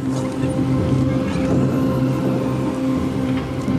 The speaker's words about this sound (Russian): Слышу немецкие самолеты на большой высоте. Сколько их? Много. Очень много.